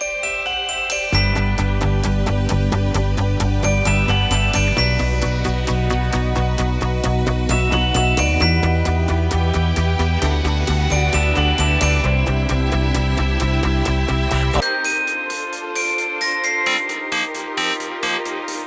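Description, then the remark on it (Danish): A bright glockenspiel or celesta-like chime motif from a track on a record rings over a full, steady musical backing with deep bass, then continues more thinly in the final seconds once the low end drops away. “Der er sådan noget klokkespil eller celeste noget, på, både på …, … og, og …”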